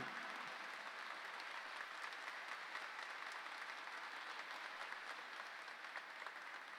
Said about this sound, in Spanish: Mostrémoslo al público para que vean qué bonito un gran aplauso para Artilleros de Uruguay.